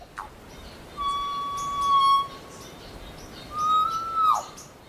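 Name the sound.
birdsong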